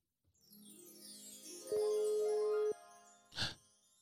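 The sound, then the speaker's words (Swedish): A short electronic jingle as a new caller joins a phone call: rising tones sweep upward, a steady beep holds for about a second, then a brief bright burst ends it. Clear, with no voices. “Vad är det som låter? Vi har någon ny på tråden här snart tror jag.”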